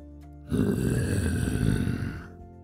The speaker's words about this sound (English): Oh no, it sounds like there's a bear nearby.